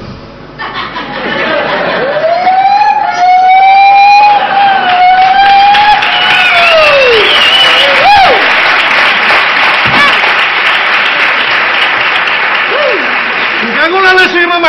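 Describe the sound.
A voice imitates a motorcycle alarm, wailing in rising and falling sweeps, loud, over a constant bed of crowd noise that sounds like applause and laughter.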